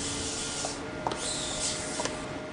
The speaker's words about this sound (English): We're in the quantum sensing lab, and you can hear the hum of the various quantum sensor microscopes.